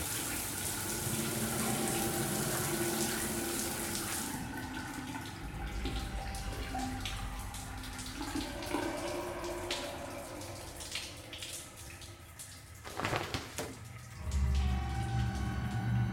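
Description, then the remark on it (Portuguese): Shower water runs steadily as a girl takes a shower in a holiday house, a bright hissing spray at first that softens into a lower, continuous splashing stream, with a few brief clunks and gushes near the end. “No anoitecer do segundo dia, uma das meninas tomava banho quando percebeu algo apagando o vapor do chuveiro no espelho.”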